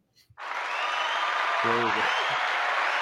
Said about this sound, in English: Ah, put in claps.